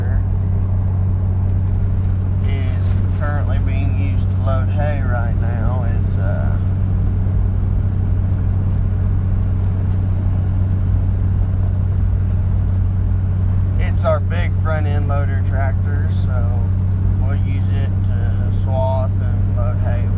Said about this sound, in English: tractor we normally use for the swath